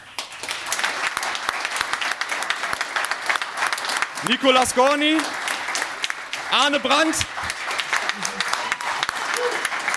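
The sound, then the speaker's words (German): Dense, steady applause from a sizable live crowd at a jeden Tag NBA live show as a team member is introduced, with a man's voice briefly calling out over the clapping twice near the middle. “Dann einmal bitte kurz auch noch Applaus”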